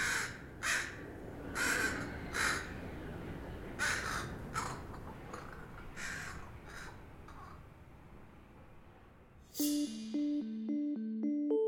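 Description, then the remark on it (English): Crows caw repeatedly in a backyard, harsh calls arriving in uneven bursts, some loud, others fainter, before a bright chiming musical tone cuts in near the end. “So I turn to my backyard where I have a healthy population of bright, beautiful, glamorous crows.”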